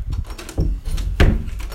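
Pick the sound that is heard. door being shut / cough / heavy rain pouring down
door being shut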